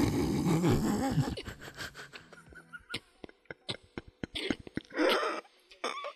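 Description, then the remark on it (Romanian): A voice imitates a person who chews too loudly and forcefully. A brief throaty vocal sound gives way to a run of sharp, wet smacking clicks in an irregular, rapid rhythm. “Și mi-am dat seama, mănâncă prea tare. Deci mestecă prea puternic.”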